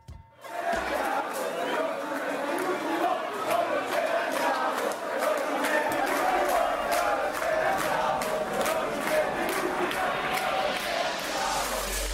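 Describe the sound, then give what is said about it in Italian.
A dense crowd in a club roars and chatters continuously, with overlapping voices, shouts and brief cheers forming a loud, steady wall of noise for the whole stretch. “E c'è la folla anche qui.”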